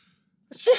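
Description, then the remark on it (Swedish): A single sharp sneeze bursts out after a brief near-silent pause, with a quick inhaled build-up followed by a loud, breathy explosive release. “Oj, prosit, prosit, prosit.”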